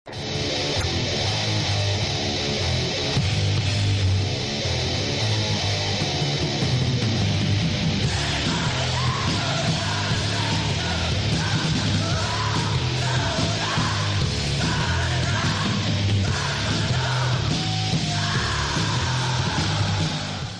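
A heavy metal song with harsh, shouted vocals over dense, distorted guitars and pounding drums, loud and continuous throughout with no pauses.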